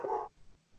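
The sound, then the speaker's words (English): A single sharp, fairly loud bark from a pet dog rings out at the start, then fades into a quiet pause before another sound begins to rise at the very end. “If you guys can hear a dog barking, that's, that's my little demon.”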